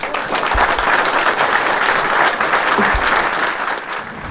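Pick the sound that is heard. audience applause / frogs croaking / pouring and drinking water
audience applause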